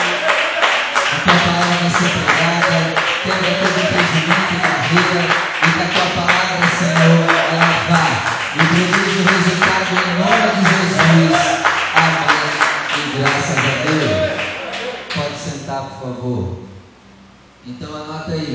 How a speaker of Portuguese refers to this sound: Então peço que você feche os seus olhos, desocupe as suas mãos e vamos dar uma linda salva de palmas à palavra do Senhor.